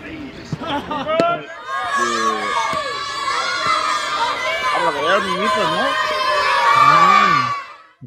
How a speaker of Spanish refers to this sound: niños, por lo que veo, no, han enfocado los niños, pero había niños gritándole ahí a, los jugadores del, del Málaga, club de fútbol. Había ahí chiquillos, chiquillos en, ese entrenamiento.